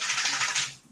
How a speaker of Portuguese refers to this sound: Boa. Esse é o barulho da minha cachorra, viu?